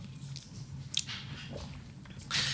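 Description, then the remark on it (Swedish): Wet slurping sips of a thick lactose-free smoothie, with a short sharp pull near the start and a longer, louder slurp at the end, no one talking. “Jag har också här, så jag tar också en klunk.”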